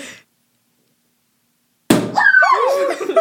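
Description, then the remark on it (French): A bottle cork pops open with a single loud bang after a brief silence, followed by fizzing and excited voices and laughter. “je sais pas de quel bord je vais popper ça”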